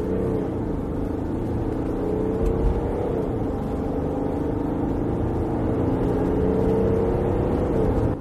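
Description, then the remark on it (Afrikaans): A deep, steady growl of Mercedes' own 3-litre turbo diesel engine in a Mercedes X350d 4MATIC double-cab pickup runs throughout, a low rumbling drone with slight pitch swells as it revs gently, fairly loud with no talking. “mooi diep grom van die 3 liter turbo diesel, Mercedes se eie masjien, terwyl die ander X-klasse, die Nissan Navara se 2.3 turbo diesel gebruik.”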